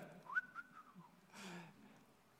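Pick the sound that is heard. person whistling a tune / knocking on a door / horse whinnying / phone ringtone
person whistling a tune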